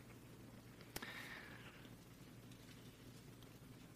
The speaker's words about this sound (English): And yeah, you can turn there with me. It's the middle of your Bible. I hear some turning pages. It's the middle of your Bible, the book of Isaiah.